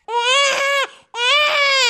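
An infant cries loudly and inconsolably, two long strained wails, each broken only by a brief catch of breath.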